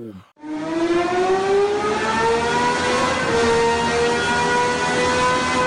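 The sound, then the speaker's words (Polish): A powerful 6.5-litre V12 car engine of 1130 horsepower, able to rev to 11,000 rpm, revs hard, its loud, shrill howl climbing steadily in pitch for several seconds without a break, with no voices over it. “6,5 e, litra, V12, e, moc 1130 koni mechanicznych i będzie się kręcić do 11 tysięcy obrotów na minutę.”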